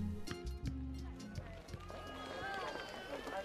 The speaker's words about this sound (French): … court aussi vite qu'il le peut.